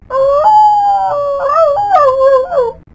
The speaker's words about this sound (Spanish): Perro de Mar William se echó hacia atrás la cabeza y aulló. Era el aullido más triste que jamás había escuchado